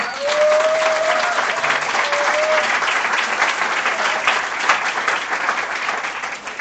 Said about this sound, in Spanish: Hacemos un aplauso para, para empezar.